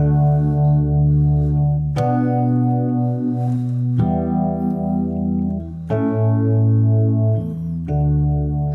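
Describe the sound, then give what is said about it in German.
Sustained, heavily effected instrument chords, the chords of a whole song, change roughly every two seconds, each struck with a sharp attack and ringing with a shimmering, chorus-like tone. Loud, with no voices. “Das sind die Akkorde, aus denen der ganze Song besteht.”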